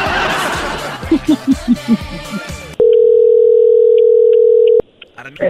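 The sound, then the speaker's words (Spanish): Rhythmic giggling and chattering gives way to a loud, steady electronic dial tone holding for about two seconds as a phone call to a shop, Casa de Deportes, is dialed for a contest, followed by faint line noise. “Se está marcando en este momento.”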